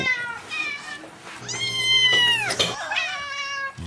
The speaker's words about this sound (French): Miaou.